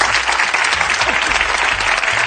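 A steady burst of audience applause, many hands clapping densely and loudly without pause for a couple of seconds, with a faint murmur of voices underneath.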